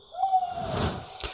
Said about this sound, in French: Donc ça, c'était la chouette-ulotte, le rapace nocturne le plus commun dans le coin en Europe, et même en Afrique et en Asie.